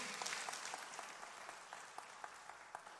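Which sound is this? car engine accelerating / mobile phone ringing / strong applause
strong applause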